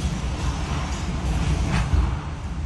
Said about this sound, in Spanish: El sonido del huracán es horrible.